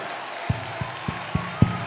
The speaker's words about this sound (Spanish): Alaba a Dios, alaba a Dios ahora. Aplaude y alaba a Dios.